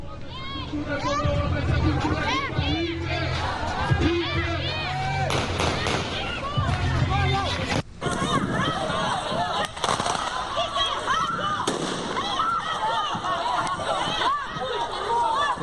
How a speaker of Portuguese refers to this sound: correria havia pânico nesse momento, as pessoas tentavam sair da mira desses tiros, inclusive equipamentos de som foram danificados por tiros que foram disparados pelos policiais.